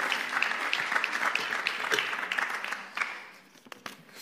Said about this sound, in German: Ich dürfte gerne einen Applaus geben.